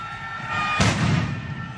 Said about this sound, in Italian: c'è stato un lancio di petardi da parte dei tifosi del Torino nei confronti degli ospiti della Juventus.